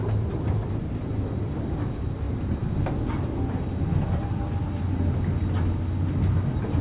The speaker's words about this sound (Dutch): en de onderkant van een carousel op te nemen